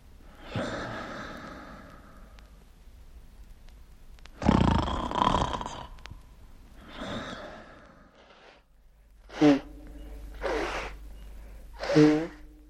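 Someone snores during a nap on the way to a destination, about two and a half hours before arriving: a few rough, breathy snorts followed by three shorter, buzzing snores at a steady pace, with quiet pauses between breaths and no talking.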